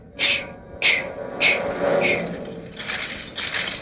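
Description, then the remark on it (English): A ring of keys, shaken in front of a mic to imitate a Roman army coming down a hill, jangles in four steady, evenly spaced shakes like marching footsteps, then breaks into a looser, continuous metallic rattle, fairly loud with no voices. “And Jack went out to his car, and he had two big wooden boxes back there, of a ring with keys on them, all kinds of keys.”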